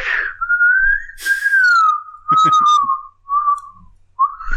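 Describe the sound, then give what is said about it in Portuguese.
A person whistles with the mouth a slow, sustained melody with gliding, wavering notes, imitating a synthesizer film theme, accompanied by a few brief clicks and breathy mouth noises, fairly loud. “É que eu fico muito com música do Blade Runner na cabeça, cara. E eu fico tentando fazer com a boca”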